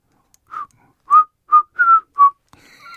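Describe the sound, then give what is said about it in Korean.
A person whistles a short melodic phrase of five clear notes, the middle ones louder and held a bit longer, followed by faint higher tonal sounds at the end. “아주 휘파람이”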